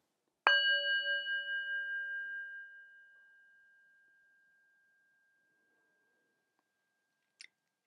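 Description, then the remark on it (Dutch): A single strike on a singing bowl, sounded as the end signal of a meditation, rings out with a bright, wavering shimmer, its layered tones slowly fading over several seconds into silence, followed by a brief soft click at the end. “En hoor je het geluid van de klankschaal als eindsignaal.”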